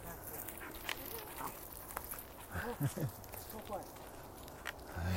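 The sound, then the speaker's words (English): A dog moves around, its paws and body making scattered thumps and scuffles, and lets out a few short yelping barks and whimpers partway through, over low background noise. “Looks like a fun dog.”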